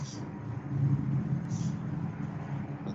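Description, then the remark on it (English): Faint, distant traffic: cars passing outside by a house make a steady low rumble that swells slightly and fades, with no clear individual vehicle standing out. “I hear cars.”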